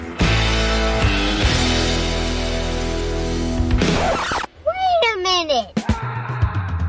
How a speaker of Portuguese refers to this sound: Escutou esse grito porque está na hora dos gritos do penhasco, olha só.